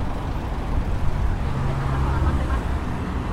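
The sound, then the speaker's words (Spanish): Steady, dense street traffic beside the National Congress building, with a low rumble of engines, vehicles passing continuously at a moderate, even loudness, with no distinct pauses; a Federal Police van on the sidewalk partly hinders the traffic. “Porque hay una camioneta de la Policía Federal sobre la vereda que hace que se dificulte un poco el tránsito por esta partecita.”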